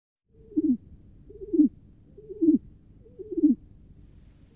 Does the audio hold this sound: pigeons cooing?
yes